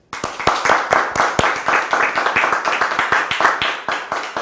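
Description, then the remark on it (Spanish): A small group applauds steadily for several seconds for the people watching, dense overlapping hand claps, loud, with no talking over it. “Un fuerte aplauso a toda la gente que nos mira, por favor.”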